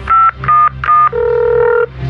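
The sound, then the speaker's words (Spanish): Three quick, steady touch-tone beeps of a phone number being dialed, followed by a longer, lower electronic tone. No voices. “Márcale al Migra.”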